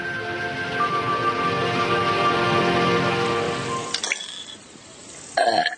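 A long, drawn-out burp after drinking soda rumbles for about four seconds, loud and buzzy with a steady low pitch, then cuts off and is followed by a couple of brief clicks.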